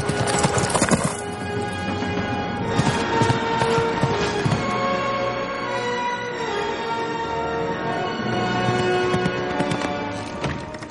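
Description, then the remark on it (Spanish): A horse spurred on by a wizard gallops with a quick, steady drumming of hooves, loud and continuous throughout, over a sustained tonal backdrop of music. There is no talking. “El mago espolea a su caballo.”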